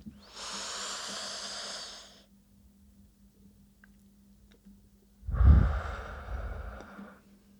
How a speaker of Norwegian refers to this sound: Bare en ett dypt pust hjelper, liksom. Stopp. For det stopper hjernen, hjernen vår, og det kan vi gjøre hvor som helst og når som helst. Så nå kan dere være med oss og puste. Skal vi puste inn?